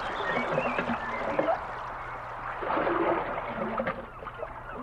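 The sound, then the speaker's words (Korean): Oars of a small ferry boat dip and splash steadily in river water, a continuous swirl of lapping and dripping with soft rhythmic strokes, no voices present. “이번에는 나룻배를 탔어요.”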